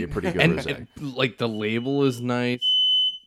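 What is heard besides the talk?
smoke alarm beeping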